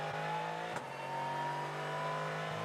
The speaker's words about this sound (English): turbo engine pulling nicely down the back straight.